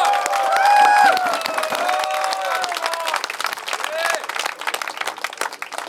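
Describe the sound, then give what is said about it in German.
A big round of applause fills the scene, dense steady clapping with scattered whoops and cheers rising over it, loud throughout and tapering slightly toward the end. “Einfach großen Applaus.”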